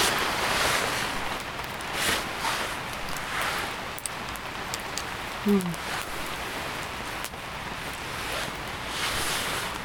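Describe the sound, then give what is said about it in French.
Steady rain falls outside a tipi in a continuous, dense hiss, with scattered sharper taps standing out now and then and no voices breaking through. “La pluie est revenue, mais le feu.”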